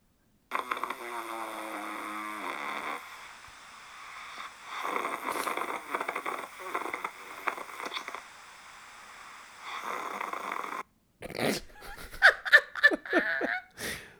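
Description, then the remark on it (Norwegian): Recorded snoring plays back in choppy, stuttering bursts that keep halting and restarting rather than flowing as steady breaths, ending in a few sharper, louder bursts near the close. “For jeg hakker når jeg snorker. Du hakker? Det er ikke en solid remse med snork, det er en sånn hakkesnork.”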